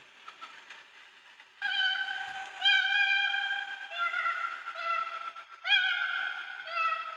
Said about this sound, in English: oh, do we want to hear a koala wailing and screaming? I'm sure this would be a thrill if you're out camping in Australia. I want to hear it. This is a distress call.